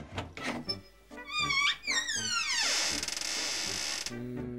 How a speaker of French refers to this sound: Dans la chambre de Madame Bang Bon, ouvrons cette armoire. Okidoki